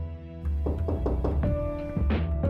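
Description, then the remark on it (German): Several firm knocks on the wooden door of an attic apartment in Halle, Germany, very early in the morning, in quick, slightly uneven succession, fairly loud, with a low background hum and no one speaking. “Und es ist noch sehr früh, da klopft es an die Tür einer Dachgeschosswohnung in der Eichendorfstraße in Halle.”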